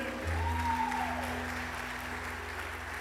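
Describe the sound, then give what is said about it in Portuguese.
An audience breaks into sustained applause for the Lord in response to a sermon: a dense, steady wash of many hands clapping at once, with a low instrumental hum and a brief rising tone in the background. “Quem recebe essa palavra, aplauda o Senhor com alegria.”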